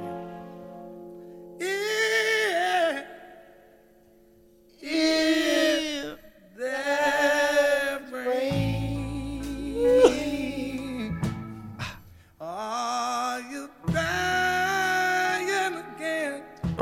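A recorded song: a soulful male blues vocal sings in long, bending phrases over a steady, low instrumental backing, fairly loud, with brief pauses between lines.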